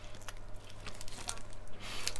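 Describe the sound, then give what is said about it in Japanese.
Someone bites into a warm grilled salmon rice ball, reheated from frozen, wrapped in soft, moist nori: quiet, squishy chewing with a few faint crinkly ticks over a low steady hum, and no talking. “もう音でもそのしっとり感が分かりますよね私海苔しっとり派なので”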